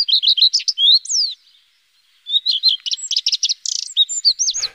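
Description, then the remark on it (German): A common redstart sings clearly, a quick run of high, sweet whistled notes, then a brief pause before a longer, more varied burst of chirps and trills. “Manche sind schon deutlich eher dran, zum Beispiel der Gartenrotschwanz, der klingt so.”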